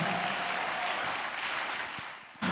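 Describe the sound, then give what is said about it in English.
A crowd claps steadily together, a dense, continuous wash of hand claps that fills the space, fading slightly before a sudden louder burst at the very end. “You are not shouting and clap your hands better.”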